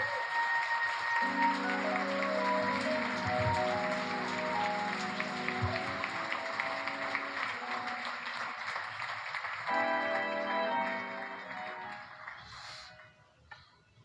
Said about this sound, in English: You all give a big round of applause for this beautiful American family.